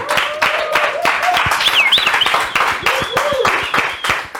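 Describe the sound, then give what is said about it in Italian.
Steady applause from a group, dense rapid clapping throughout with a few cheers and whistles rising above it, a voice or two calling out briefly in the mix. “Applauso a Katia e a Cadiuscia, dai.”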